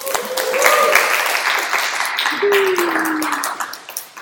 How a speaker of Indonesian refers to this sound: Hey eh, bro, tepuk tangan bro. Tepuk tangan.